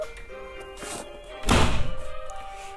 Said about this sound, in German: ich mach mal die, kurz die Tür zu.